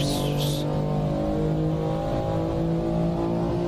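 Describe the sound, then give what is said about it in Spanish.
An M2 Competition sports car engine revs hard and holds a loud, steady roar, with a brief high turbo whistle rising at the very start, heard alone. “cómo suena el turbo.”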